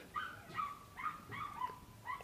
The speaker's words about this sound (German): ich glaube, da wird gerade im Hintergrund ein bayerischer Hund auf der Wiese gemeuchelt. Es tut mir leid, es ist sehr laut.